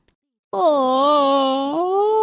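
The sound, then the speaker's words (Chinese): After a brief silence, a human voice imitates the big yawn of Douglas, a little brown bear, coming from deep down a dark hole on a spring morning: one long, loud, drawn-out moaning tone, steady in pitch, that swells slightly and rises toward the end. “一个春天的早晨，从一个深深的黑洞下面传来一声大大的哈欠声。”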